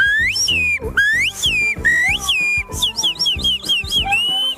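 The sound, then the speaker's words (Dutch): A loud two-finger whistle, made with the little finger and index finger, blasts out in a string of piercing notes that swoop up and down, repeating several times in quick succession with no talking. “Ik doe dus twee vingers, hè. Dat doe ik met mijn pink en mijn wijsvinger.”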